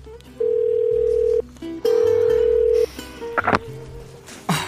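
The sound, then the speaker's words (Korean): Two long, steady ringback tones of an outgoing phone call made from an office at 10 o'clock to a boyfriend, each about a second, separated by a pause, followed by faint clattering and rustling noises as the line seems to connect. “결국 회사에 10시까지 남아있다가 남자친구에게 전화를 걸었습니다.”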